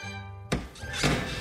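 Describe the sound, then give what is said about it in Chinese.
A steady humming tone gives way to two hard, woody thunks about half a second apart, an axe biting into the trunk as a carpenter chops a tree growing out over a cliff above a valley, with a rough rustling tail after each blow. “整个山谷都响起了砍树的声音，惊动了大老鹰。”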